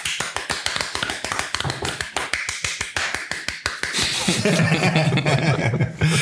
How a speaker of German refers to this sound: Oh, dafür einen Applaus für uns selbst.